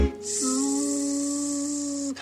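A mosquito's steady, high-pitched whine drones continuously for about two seconds, fairly loud, with no voices or other sounds around it.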